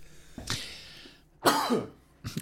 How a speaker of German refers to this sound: Habe mich gerade übrigens an mir selbst verschluckt.